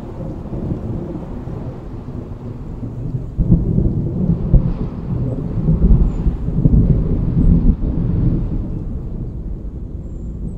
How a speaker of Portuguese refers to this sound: trovões anunciam a chuva que se aproxima.